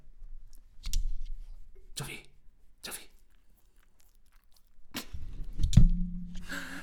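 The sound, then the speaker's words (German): A pet's claws click sharply on a hard floor, a handful of scattered taps with pauses between them, while a person quietly calls out to the animal. “Das war seine Kralle, Alter. So, ich hoffe, man hat sie gehört.”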